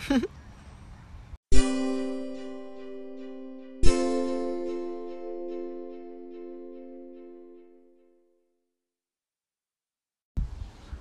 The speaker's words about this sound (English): Enjoy the wind chimes.